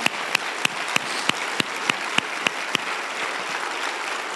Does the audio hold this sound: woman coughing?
no